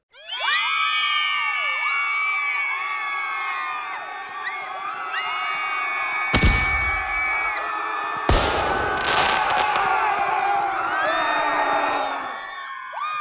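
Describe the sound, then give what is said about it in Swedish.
An audience erupts in loud, sustained cheering and whooping, many high voices shouting over each other, with a few sharp bangs around the middle, before the noise tapers off near the end. “Så in med applåder.”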